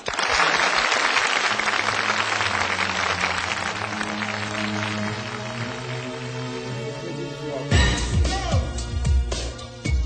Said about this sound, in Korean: 박수로 청해 듣겠습니다.